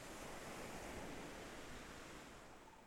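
Small ocean waves rush steadily onto a beach in a tropical location, with palm trees blowing in the breeze, in a continuous, hissing wash that eases off slightly toward the end, with no voices present.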